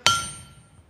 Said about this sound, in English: if it gets super, if you get it hot enough, you just lay it on this thing here, and you just you just start hammering away. And you know, there's probably just a feel to this.